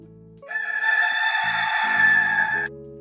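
A rooster's crow pitch-corrected into flat, robotic stepped tones, sustained for about two seconds over a backing of synthetic notes, loud and close with no talking.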